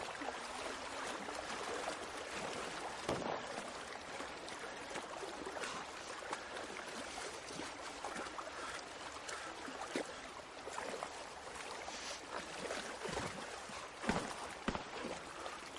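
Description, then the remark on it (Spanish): Steady water splashing and sloshing as a person swims hard across a river toward the other bank, head partly submerged, with continuous churning and occasional sharper splashes, no voices. “Nada de frente hacia la otra orilla. Nada con esfuerzo sumergiendo parte de la cabeza.”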